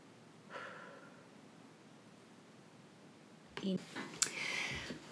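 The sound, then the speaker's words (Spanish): Slow, deep breathing during a guided relaxation breathing exercise: a soft airy inhale early on, a quiet pause as the breath is held, then a louder, rushing exhale with faint rustling near the end. “Volvemos a inhalar ese brillo, retenemos, notamos cómo se parte por todo el cuerpo, exhalamos y soltamos todo eso que nos pesa.”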